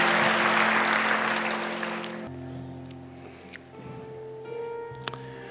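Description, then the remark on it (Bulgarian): An audience at a church service breaks into steady applause after a prayer, dense and loud for about two seconds, then thins out while sustained keyboard chords carry on underneath. “Ръкопляскай му и заповядай да седнеш.”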